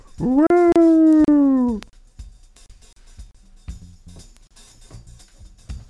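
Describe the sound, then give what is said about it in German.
A person imitates a seal with one loud, drawn-out, howling call lasting about a second and a half, followed by quiet with only faint background sounds. “also das sollte ein Seehund sein.”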